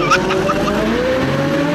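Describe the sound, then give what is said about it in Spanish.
A car being stolen: its engine revs hard as tires squeal and skid, the vehicle tearing away loudly with a sustained rising whine. “¡Se está robando el carro!”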